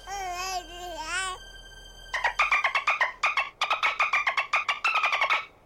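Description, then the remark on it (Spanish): A baby babbles: first a wavering, drawn-out coo, then a quick run of choppy, repeated syllables that bounce along for a few seconds. “What is happening? What is that? Is that a baby nut?”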